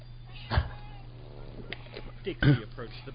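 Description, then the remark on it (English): A cat meows softly a couple of times over a steady low hum with a few brief knocks or bumps in between. “and I don't know if you can hear it, but uh, cat break too.”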